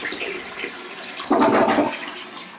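A toilet flushes, a sudden loud rush of water surging in midway after a softer hiss, then churning steadily as the bowl drains.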